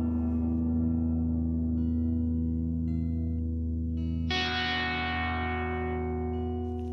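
Experimental music from an album released on the cassette label Dusty Balls: a steady, heavily processed electronic drone of layered sustained tones, broken past the midpoint by a sudden bright, distorted swell that slowly fades. No voices.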